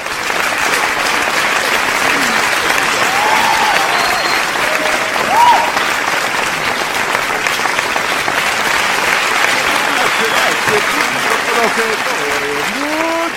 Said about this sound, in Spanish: Démosle un aplauso al señor Ferruco Lamborghini